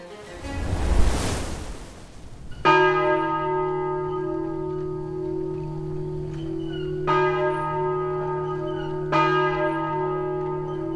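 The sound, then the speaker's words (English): A whoosh of surf-like noise gives way to a large town church bell tolling three times to summon people to church, each deep, resonant strike ringing on and overlapping the next. No voices. “Listen to the bells, my children. You can hear their music all through the town, in the surrounding fields and valleys, and even the mountains summoning all the good, God fearing people of Darkenburg to church.”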